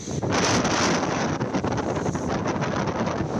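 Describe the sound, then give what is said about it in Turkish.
Strong storm wind roars steadily across open water during a storm in Turkey's Marmara and Aegean regions, buffeting the microphone with a dense, continuous rush and gusty surges, with no voices present. “Aydın ve Balıkesir'de de fırtına çatıları uçurdu.”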